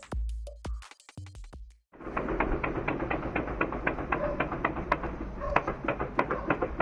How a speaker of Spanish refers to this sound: Los vecinos de Tecamachalco están cansados de escuchar esto todas las noches. Exactamente, son balazos.